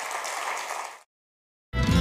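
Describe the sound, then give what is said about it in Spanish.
A church audience applauds the Lord, a dense, steady wash of clapping that stops abruptly after about a second, followed by silence and then a sudden loud, fuller sound. “Dele un aplauso en esta hora al Señor.”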